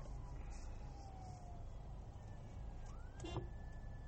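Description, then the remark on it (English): An ambulance siren wails in long rising and falling sweeps as the ambulance tries to get through traffic, over a heavy rumble of traffic and engine noise, moderately loud and steady throughout. “We're, wow, there's an ambulance trying to get through, and this guy is not even moving.”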